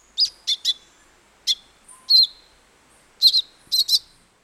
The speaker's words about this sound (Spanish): Pero un pequeño pájaro cantor originario de Sudamérica, llamado Eufonia piquigruesa, emplea lo que los científicos llaman mimetismo engañoso. Algo muy inusual entre las aves.